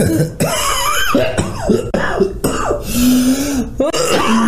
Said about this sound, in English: going through a bit of a coughing fit.